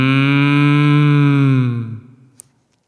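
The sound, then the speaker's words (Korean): A person imitates a cow with one long, low, steady moo lasting about two seconds, loud, then it fades out and a brief faint click follows. “제가 아까 음매라고 했는데 이렇게 할 걸 그랬어.”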